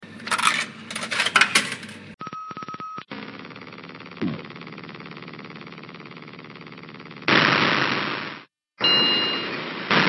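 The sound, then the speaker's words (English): An arcade token clatters down through a coin slot with bright metallic jingling, followed by a short electronic beep and a steady mechanical hum, then noisy whooshing bursts like an arcade machine starting up. “Until next time, have a token on me as you hear a clip from the subject of a future episode.”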